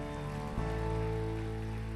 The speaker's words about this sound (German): Können wir mal allen Applaus geben, die diesen Schritt machen?